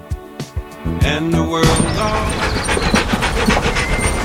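A dog pants in a few quick breaths at the start, then a dense, steady rumble with rattling clatter takes over and buries the breathing.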